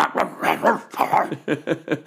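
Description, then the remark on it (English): A person imitates a deep, round dog bark, voicing a quick series of close, fairly loud woofs: a few longer ones, then three shorter, clipped barks in a steady rhythm. “It's got to be a really round sound, yeah.”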